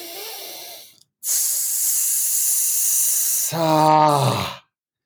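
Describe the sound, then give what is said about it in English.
Loud breathing: a soft breath, then a long hissing rush of air, finishing with a voiced, sighing exhale that trails off into silence. “I would say specifically for people that don't know their breathing, add sound to the breath, right? So if you take an inhale”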